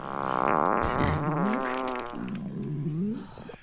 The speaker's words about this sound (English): It is a woman farting uh, on a very popular woman's program.